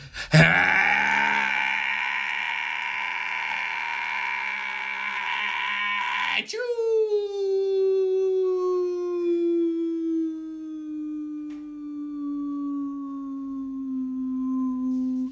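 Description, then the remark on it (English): A voice mimics a long, strained, held-in sneeze: a tense, buzzing groan sustained for several seconds, then breaking into a long, slowly falling whistle-like tone with no one talking over it. “I hold in my sneezes till my eyeballs bug out bloody like Michael Jordan's.”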